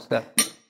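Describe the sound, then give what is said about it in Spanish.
Two quick glass clinks ring out as glasses are touched in a toast, one just after the other, each leaving a brief bright ringing tail before fading to quiet. “Salud por eso.”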